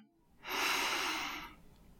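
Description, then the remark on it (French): A single slow, deep breath drawn in through the nose, a soft airy rush that swells for about a second and then fades, quiet with no talking. “Observez le simple mouvement naturel de votre souffle. Inspiration.”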